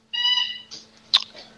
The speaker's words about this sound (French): Ouais, c'est le chien qui joue. ah, c'est le chien